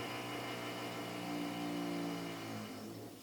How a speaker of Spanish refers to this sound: Y en medio de todo eso también está Dios, en medio de esas vueltas que da el taladro, en medio de ese trabajo que está haciendo alguien pues para servir a los demás, para ayudarles, para hacerles más fácil su trabajo